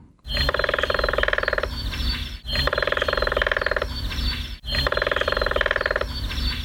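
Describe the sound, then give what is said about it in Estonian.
Three loud, rapid bursts of grey-headed woodpecker drumming on a tree, each a roughly two-second roll of dense, even taps with only brief pauses between them. “ja võtame siis kuulda ka tema hallpearähni toksimistehnikat, kui juba võrdlema sai hakatud.”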